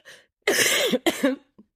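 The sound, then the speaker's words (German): A short, soft breath leads into two loud, harsh coughs in quick succession, followed by a faint little throat sound at the end. Clear, with no talking. “Du hast ja auch Husten 3000.”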